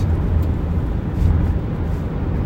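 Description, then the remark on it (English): A car speeds past in the next lane doing about 100 in a 60 zone, its loud, steady low roar of engine and tires swelling slightly midway through. The road noise never lets up, and no one speaks. “gee, there's a car going fast in another lane here.”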